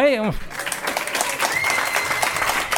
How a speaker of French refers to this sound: C'est une émission publique très conviviale en direct de la maison citoyenne Thierry de Bagneux pour le prouver, on peut demander au public euh, de bah, d'applaudir.